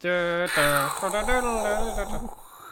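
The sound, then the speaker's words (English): A voice imitates the Final Fantasy VII battle-start sound heard when a fight starts while walking through a field: a loud, sustained buzzing tone that wavers and warbles, then slides into a lower hum, alone for nearly three seconds. “had the same sort of reaction as when you're walking through a field in Final Fantasy VII and a fight starts.”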